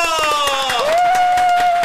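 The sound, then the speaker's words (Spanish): An audience applauds steadily, a dense patter of claps throughout, with a loud sustained whistle or whoop cutting in over the clapping. “Fuerte el aplauso.”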